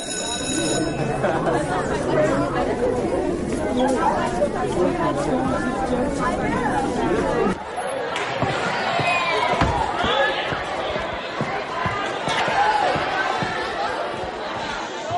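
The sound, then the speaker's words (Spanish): A crowd of children chattering noisily, many overlapping high voices forming a constant, loud babble that runs the whole time, shifting to a slightly thinner hubbub about halfway through. “Children, please be quiet, quiet, quiet.”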